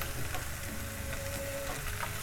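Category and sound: food or drink, garlic frying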